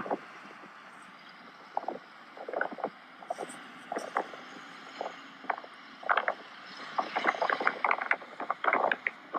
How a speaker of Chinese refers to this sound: 然后是拍了我们在那个坐泰国的小三轮车。哦，我有录视频耶，我在录那个风景，可以听到风的声音。